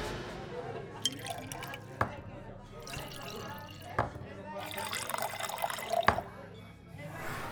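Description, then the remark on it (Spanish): Drinks being poured into glasses, a steady splashing, gurgling fill broken by several sharp glassy clinks spaced a couple of seconds apart, with faint voices murmuring underneath. “Bueno, bueno, vamos a preparar unos tragos para aliviar los nervios.”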